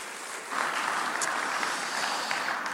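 An audience in Evansville applauds a guest speaker, the clapping starting softly and then swelling into a dense, steady crackle of many hands that holds at an even loudness to the end, with no voices.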